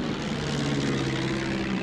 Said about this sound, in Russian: Следом за ней не видя друг друга и ничего вокруг, спускаются остальные самолеты.